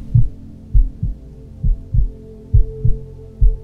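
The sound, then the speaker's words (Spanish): A human heartbeat thumps steadily in deep, muffled lub-dub pairs, roughly one beat per second, alone over a faint low hum. “Estás ahí contigo con los latidos de tu corazón.”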